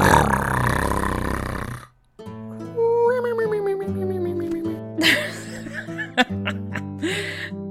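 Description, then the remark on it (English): A voice imitates one loud, rough, rumbling snore lasting about two seconds, the snore of the bundled-up figure of Oslin Thistlepaw asleep in a big comfy chair next to the fire, followed by a stretch of laughter and playful voiced sounds. “And maybe it even startles you when out of nowhere this massive snore comes out of him, just kind of.”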